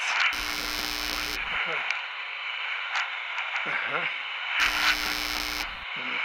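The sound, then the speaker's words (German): A radio, just switched on by pressing one of its buttons, plays steadily with a hissy, crackly broadcast tone and muffled voices, interrupted twice by short bursts of harsh, buzzing interference. “oh, jetzt habe ich wohl das Radio eingeschaltet.”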